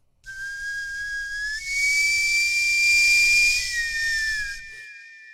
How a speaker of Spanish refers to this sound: Exactamente. aguzas eh, el oído. Según yo, el, chiflido eh, este de camotes este, viene desde, desde los ochentas